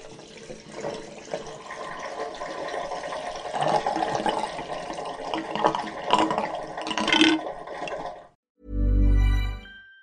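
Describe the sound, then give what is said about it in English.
Bath water, now turned cold, sloshing and splashing in uneven surges for about eight seconds as someone moves and gets out of the bathtub, then the water goes quiet. A short, deep, booming tone follows. “Et puis l'eau commence à être vraiment froide. Bon, je pense que je vais sortir de la baignoire.”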